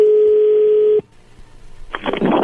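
A steady telephone dial tone hums over the line for about a second as a call is placed to a man's wife, then cuts off into near silence before a burst of crackly line noise picks up.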